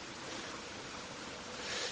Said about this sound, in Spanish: Espero que se bien, eso sí. Porque está súper chulo así con el ruido del agua de fondo y el viento. Lo único es saber la, ver la calidad del, del móvil, a ver qué tal.